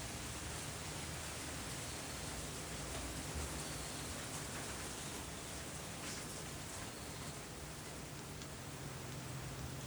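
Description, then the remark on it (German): Steady rain falls without a break, a dense, even hiss of countless drops at a constant level, with no voices or other sounds over it. “Lass es jetzt an den Regen los.”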